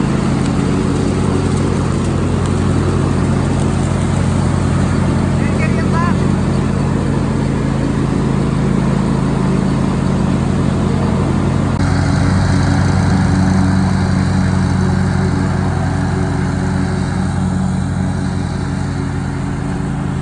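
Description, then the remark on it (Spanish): A leaf blower's small engine drones steadily and loudly for the whole stretch, with a constant low hum and a broad roar, running without pause as it is used to sweep the street. “Ya ya está haciéndolo con la sopladora de hojas.”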